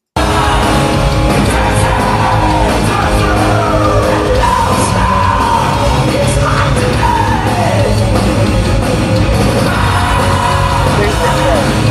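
A loud, dense live heavy metal performance, with distorted guitars and drums pounding continuously while a lead vocalist yells and sustains shouted lines over the top, and a crowd faintly audible beneath.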